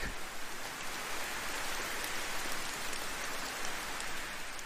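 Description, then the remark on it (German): Steady rain falls continuously, a dense hiss of countless drops pattering on a surface, even in loudness throughout with no voices or other sounds. “Und dann lässt du alles, was nach diesem Regen kommen mag”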